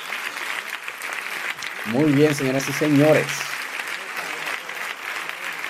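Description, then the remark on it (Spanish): Steady, dense applause celebrating a two-year anniversary fills the whole stretch, a continuous crackle of many clapping hands, while a man speaks briefly over it in the middle. “Bravo, bravo. Un aplauso para nosotros.”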